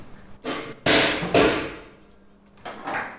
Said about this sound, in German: Wir lassen ein definiertes Gewicht, in dem Fall 2 Kilo, von einer bestimmten Höhe fallen. Dieser und weitere Tests lassen Schlüsse zu auf die Explosionsfähigkeit.